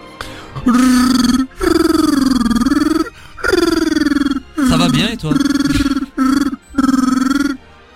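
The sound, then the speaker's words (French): A man's voice imitates Wookiee speech, the main language of the Star Wars Holiday Special: a string of five or six loud, throaty roaring bursts with short pauses between them, rising and falling like gruff alien speech. “Je viens de vous parler en Wookiee”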